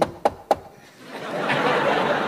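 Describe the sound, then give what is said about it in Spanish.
Three sharp knocks on a door in quick succession, fairly loud, followed by a rising wash of background noise. “Alguien golpeó la puerta.”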